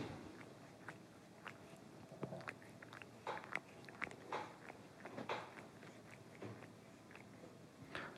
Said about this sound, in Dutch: Dit is het geluid van de kat die naast mij op de bank zit, zichzelf te wassen.